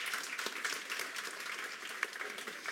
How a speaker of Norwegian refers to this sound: Skal vi si liksom applaus for den eh, innspillingen?